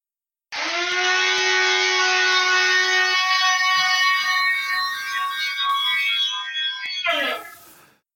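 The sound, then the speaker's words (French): A soup blender runs loudly for about seven seconds as it is recorded for a set of sounds, a steady, buzzing motor whine rich in overtones, its pitch wavering slightly before a rough surge near the end and a quick stop. “vous allez nous interpréter une petite pièce avec votre mixeur à soupe.”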